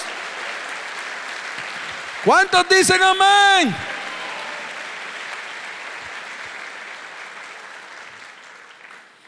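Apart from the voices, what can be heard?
audience applauding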